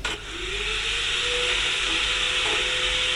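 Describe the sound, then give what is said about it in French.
A connected washing machine runs in spin mode: a steady, loud mechanical whir with a broad rushing hiss, while a low motor whine climbs in pitch as the drum spins up. It runs continuously, with no voices. “Ici, la machine à déconnectée. Mode essorage en cours.”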